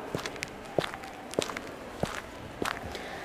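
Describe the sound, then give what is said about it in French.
Steady footsteps of a person walking calmly at an unhurried pace, each step a distinct thud with a crisp scuff, about five steps in three seconds, moderately loud with no voices. “marchait tranquillement”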